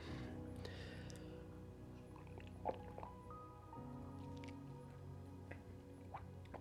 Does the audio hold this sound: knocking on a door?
no